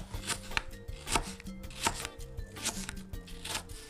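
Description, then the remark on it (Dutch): A knife cuts an apple into wedges on a cutting board in a steady series of crisp chops and taps, with no talking. “Dus ik heb nu de helft ervan afgesneden. Die ga ik zo in partjes snijden.”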